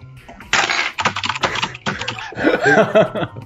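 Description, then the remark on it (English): Rapid clacking keystrokes on a mechanical keyboard in quick irregular bursts, fairly loud, with a faint voice murmuring briefly underneath toward the end. “I also have a me- mechanical keyboard, and I've been very quietly gentle tapping on it.”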